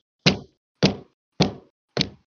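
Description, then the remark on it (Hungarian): A head is knocked four times onto a table: dull, heavy thumps at an even pace about half a second apart, each a solid whack against the hard surface with a short decay. No voices. “ez a fejem volt az asztalba.”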